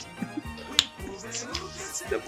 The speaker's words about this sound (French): Comme nous, j'ai fait claque en même temps que toi. je m'entendais, je me suis dit, mais pourquoi il fait pas claque Excuse-moi. J'ai fait claque.